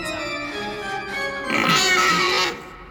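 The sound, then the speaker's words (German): A shrill, wavering tone from a stubborn, apparently clogged organ pipe squeals like a pig during practice, swelling louder and harsher midway before easing off, heard alone with no speech over it. “dann quickte sie wie ein Schwein.”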